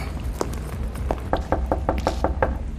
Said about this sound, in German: Ja, sollen wir mal was klopfen jetzt, oder?